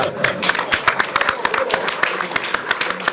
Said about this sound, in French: Et on applaudit Emmanuel Macron.